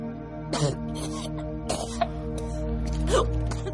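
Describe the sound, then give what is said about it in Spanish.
A woman lying on her back coughs up vomit and chokes while convulsing, in three wet, gurgling bursts spaced a second or so apart, strained, over a steady low electrical hum. “Está tumbada boca arriba mientras tose vómito.”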